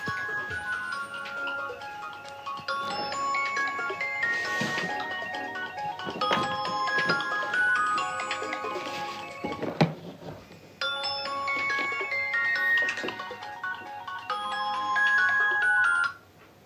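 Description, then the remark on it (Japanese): A child's GPS tracker phone rings with a bright, repeating electronic melody, playing in two long bursts separated by a brief pause, steady, with no talking over it. “子供の見守り携帯が鳴ってましたね持ってき忘れたのかなまあいいか”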